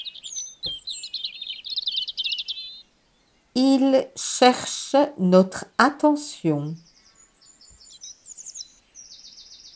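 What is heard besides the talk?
european robin calling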